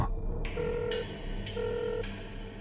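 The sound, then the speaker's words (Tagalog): A phone rings on the other end of a call the speaker has placed to their mother: two short, steady electronic ring tones about a second apart, moderately loud over a dull background hum, with no one speaking. “Balisa na po ako sa mga oras na yon at habang nagriring sa kabilang linya ay tila tumitriple ang tibok ng puso ko sa kaba.”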